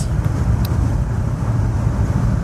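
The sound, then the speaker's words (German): Steady, loud rumble of a car cruising on the motorway at 120, deep low-end road and engine noise with a constant hiss of wind and tyres, a couple of faint clicks, no voices. “So, gut, dass ich das alles kontrolliere und mache, während ich auf der Autobahn 120 fahre und äh, mich nicht vom Verkehr ablenken lasse.”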